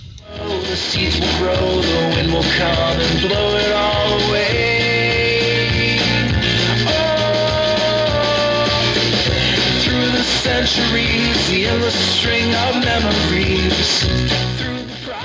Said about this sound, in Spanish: La música que escucháis en nuestro podcast es música libre. Y lo que oís es la canción … de ….